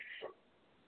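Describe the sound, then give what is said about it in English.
A single short, sharp bark from Crystal the dog, fairly faint, followed by quiet low background noise. “As you can hear Crystal barking, she's agreeing with me.”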